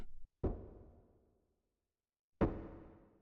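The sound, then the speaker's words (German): Two hollow, resonant knocks about two seconds apart, like a wooden stick striking a hard stone floor, each ringing out and echoing briefly. “Tock, tock, tock. Wie wenn man mit einem Holzstab auf den Steinboden klopft.”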